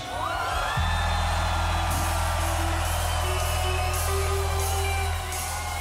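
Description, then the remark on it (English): A large crowd of children and young people screams and cheers loudly at a singer about to sing a song, a dense sustained roar with shrill whoops on top, over a steady low hum of amplified sound, continuing without pause for several seconds. “I want all the young people scream at me.”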